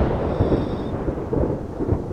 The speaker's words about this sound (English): it starts to rain.